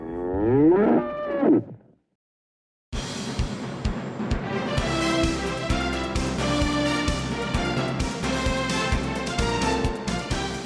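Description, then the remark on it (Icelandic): A bull bellows loudly, one long harmonic, wavering roar lasting about two seconds, then a pause before a burst of busy, rhythmic music takes over. “Þetta nöyt er vígalegt og öskraði hátt að sendi bóða konungs þegar að hann dyrfðist að koma nálagt Vesturlandinu.”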